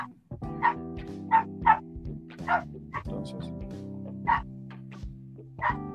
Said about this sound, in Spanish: Ay, perdón, es que está aquí mi perrita ah, llamándome.